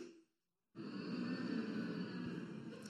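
After a short pause, an audience, children included, breaks into a loud, steady collective hum that swells and holds for a couple of seconds, many voices blending into one sustained drone, humming as a vote for what they look forward to at Christmas.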